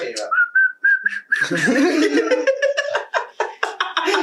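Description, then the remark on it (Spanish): A person whistles a short, steady, slightly rising tone for about a second, clear, imitating the whistle of the Silbón ghost, followed right away by breathy laughter and giggling. “Y por eso silbo nada más.”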